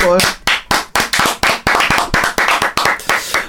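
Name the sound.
applause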